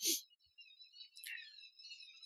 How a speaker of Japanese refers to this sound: なので、えー、鳥さんがここ大事ですよって言ってくれてますね。